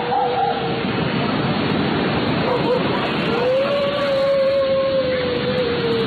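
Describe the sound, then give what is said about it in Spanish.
A thin, drawn-out wail heard in a street in Mexico City at almost 2 a.m. rises and then holds a steady high pitch for several seconds, faint against a constant rushing hiss of wind-like noise; a briefer cry sounds at the start. “¿cómo sería ese sonido real de la llorona?”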